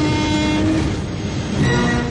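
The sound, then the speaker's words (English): A loud locomotive roars past for about two seconds: heavy, steady rumbling with clattering mechanical noise and a sustained horn-like tone running through it. No one speaks. “More powerful than a locomotive.”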